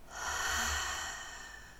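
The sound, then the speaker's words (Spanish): A single deep diaphragmatic breath, a steady rushing of air that swells quickly and then eases off slightly, with no talking. “pero tiene que ser una respiración diafragmática profunda.”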